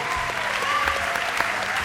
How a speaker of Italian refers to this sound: E questa è una cosa che merita subito un applauso perché